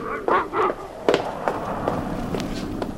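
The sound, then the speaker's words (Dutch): A few sharp bangs and cracks ring out at irregular intervals against a steady rumbling background, with a brief honking or vocal sound near the start, as a low-flying plane crashes not far away. “Dat was die klap natuurlijk. Er is er een neergestort.”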